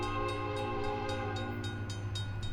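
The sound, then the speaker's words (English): A freight train's horn sounds in a long, steady, loud blast as it runs through the backyard of a motel a little south of Poetry, while the wheels clatter over the rails in a regular, rhythmic beat underneath. No one speaks. “Turns out a freight train runs right through the backyard.”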